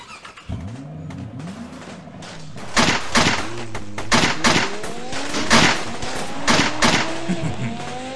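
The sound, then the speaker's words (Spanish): A car engine roars to life and revs hard, its pitch climbing as it accelerates away, with tire squeals and a series of loud, sharp bangs cutting through the engine noise. “Arranque el coche.”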